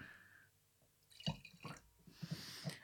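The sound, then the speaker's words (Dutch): Wine, a Chilean blend of Cabernet Sauvignon and Merlot, pours in short, uneven gushes with a few distinct drips and splashes, fairly quiet, with no voices during the pour. “Even, ik zit even te denken hoe ik nou het best kan schenken.”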